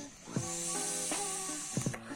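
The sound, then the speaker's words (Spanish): A long, steady breathy hiss as someone exhales vapor from a vape, lasting about two seconds, with soft tonal humming sounds underneath and brief puffs near the start and end. “Es cagado porque aquí ya me van a ver vapeando.”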